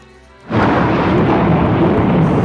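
A loud, sudden crack of thunder bursts in after a brief quiet lead-in, then rolls on as a dense, sustained rumble that fills the rest of the moment with no voices.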